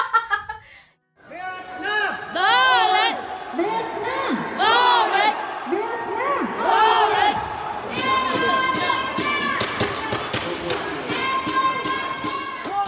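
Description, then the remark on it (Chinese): Fans cheering and chanting at a doubles championship match, with Indonesian and Vietnamese supporter groups: a loud, dense mass of voices rising and falling in rhythmic waves, with a brief lull near the start before the roar continues. “OK，那我们到时候就是在请剪辑师在那边放上现场加油声的那个，我 没错 们，可以比较一下印尼跟越南。”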